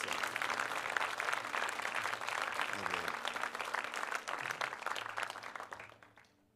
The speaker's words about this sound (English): Can we give Jesus one more clap of praise?